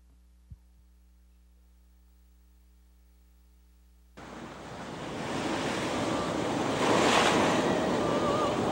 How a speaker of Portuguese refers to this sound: ondas vão engolir o farol.